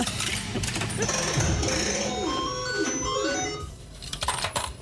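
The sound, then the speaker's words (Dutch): Metallic clinks of coins dropping and rattling, mixed with bright electronic jingle tones and sliding chimes, like a game machine paying out, fairly loud and busy throughout, as a player's second coin comes in. “Hier komt je tweede muntje.”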